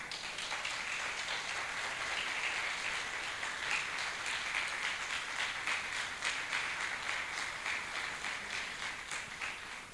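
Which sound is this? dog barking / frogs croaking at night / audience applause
audience applause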